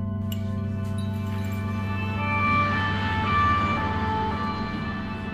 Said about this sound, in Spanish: Las sirenas construyen una sensación de alarma y desesperación, cada vez que se escuchan de fondo aproximándose a los pobres individuos que buscan escapar del continente.